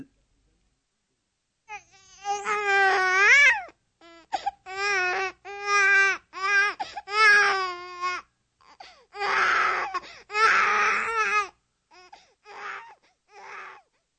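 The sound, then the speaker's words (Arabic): An infant cries in a series of loud, high-pitched wails with short pauses for breath, a few bursts turning raspy and strained before the crying trails off into softer whimpers. “طبعا لقد عرفتم الآن أنه طفل رضيع يبكي ولكن هل بإمكانكم توضيح معرفتكم لذلك على الفور؟”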